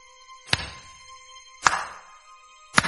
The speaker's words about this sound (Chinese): 那掌声随着那干巴巴的手顺势响起。